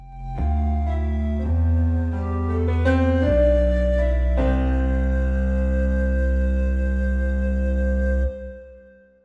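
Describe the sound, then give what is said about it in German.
A steady, mellow instrumental music bed of sustained synth-like chords shifting every second or two, with no voices, holding at an even level before fading out near the end. “ihr hört es im Hintergrund, gibt es mal wieder ein bisschen äh, Musikbett”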